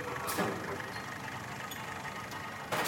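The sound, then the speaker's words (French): A car body's sheet metal crumples under the claw of a mechanical arm, the compacted roof squealing, doors twisting and windshield bending, with harsh metallic crunching bursts near the start and again at the end over a steady machine engine drone. “La tôle se froisse sous la pince d'un bras mécanique.”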